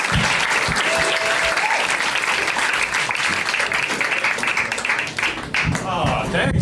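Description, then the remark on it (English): Loud, sustained audience applause for Ted Alexandro fills the whole stretch, a dense crackle of many hands clapping at once with a few whoops mixed in, holding steady before thinning slightly near the end. “I want y'all to give a big round of applause for my man Ted Alexandro, y'all.”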